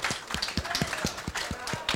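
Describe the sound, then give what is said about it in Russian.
An audience claps together in a steady rhythm as members of a music ensemble are introduced, a quick even beat of many hands over a dense wash of crowd noise, fairly loud and continuous throughout. “искупайте в овациях.”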